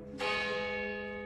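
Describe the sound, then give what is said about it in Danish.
A church bell strikes once near 0.2 seconds, its bright metallic tone ringing out and sustaining with a long, slowly fading hum; no voices are present. “Og du har nok gættet, at det, der bimler og bamler i baggrunden, men at det er lyden af kirkeklokker.”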